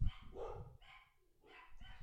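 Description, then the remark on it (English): A gigantic dog barks very loudly as a food delivery person arrives, three deep, booming barks in quick succession with short gaps between them, and no voices alongside. “his bark is the loudest bark I've ever heard of any dog in my life”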